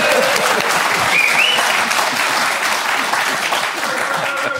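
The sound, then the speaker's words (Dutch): Steady, dense applause from an audience fills the whole stretch, a loud continuous patter of many hands clapping, with a brief whistle or cheer rising above it. “Nog een applaus.”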